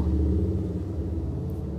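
A motorcycle engine sputters loudly as it passes by, a low, throbbing rumble with a steady chugging pulse that eases slightly as it carries on, with no voices.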